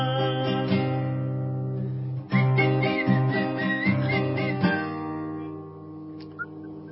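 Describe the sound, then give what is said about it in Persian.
A tuneful melody is whistled over a steady instrumental backing, the notes shifting in pitch in a smooth, sustained line. No one speaks. “برکلا قسمت سوتش رو خیلی خوب بارکلا بارکلا خیلی خوب صداش خیلی گرم و دلنشین بود آفرین”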